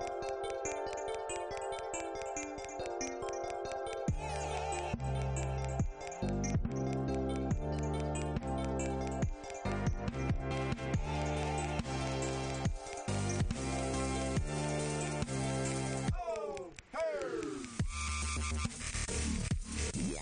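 A loud electronic music track plays continuously, with a steady pulsing bass beat and bright layered synth tones, changing pattern partway through. Nobody speaks over it.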